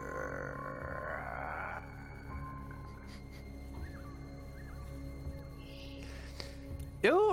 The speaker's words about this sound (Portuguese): Mas como eu tinha dito, vocês escutam a distância vindo daquele bagulho que parece ser uma jaula, um rugido muito alto.